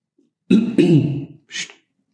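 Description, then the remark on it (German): A person clears their throat, two quick gravelly rasps run together, followed a moment later by a short breathy exhale. No talking. “Ich wollte die ganze Zeit schon räuspern.”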